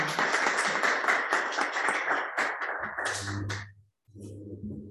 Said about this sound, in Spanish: Pues nada, gracias a vosotros y gracias por el interés. Pues, aplausos.